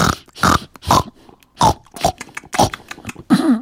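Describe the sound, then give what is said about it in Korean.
A pig oinks and grunts in a rapid series of about seven loud snorts, uneven in rhythm, ending in a higher squealing grunt. “제 꿈에도 시커먼 돼지 한 마리가”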